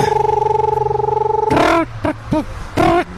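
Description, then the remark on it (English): Someone imitates a screech owl with their voice: a steady, rapidly pulsing trill for about a second and a half, then three short, loud, wavering whinny-like calls. “How did the screech owl start?”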